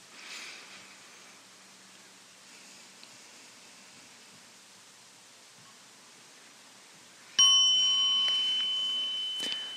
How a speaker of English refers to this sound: small bells for you to stand up.